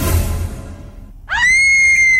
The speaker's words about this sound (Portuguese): abriu a porta do quarto, daí ouviu o grito de novo.